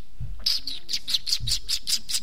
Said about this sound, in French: Vous entendez les petits oiseaux